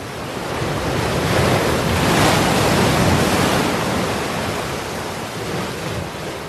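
Rough sea surf crashes in a continuous loud roar, with gusting wind blowing across it and swelling midway before easing slightly; no voices are present.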